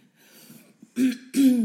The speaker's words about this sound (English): Sorry, you guys. I'm gonna be clearing my throat like crazy. I've been sick for like a week